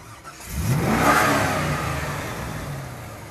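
A powerful Corvette sports car engine revs up with a rising roar, climbing in pitch over about a second, then settles into a steady rumbling growl. No one speaks.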